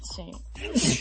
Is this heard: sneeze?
yes